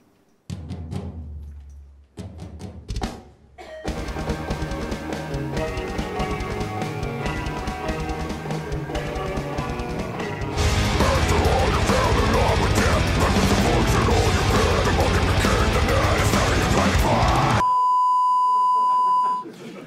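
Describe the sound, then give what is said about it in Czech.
A short intro jingle plays: a few sharp hits, then a dense, bright musical passage that swells louder halfway through and cuts off into a single sustained beep. “tak samozřejmě každý podcast by měl mít eh, svoji znělku, já ji tady dokonce mám připravenou a je dost pravděpodobný, že si to zmáčknu správně, tak ji třeba i uvidíte a možná i uslyšíte právě teď.”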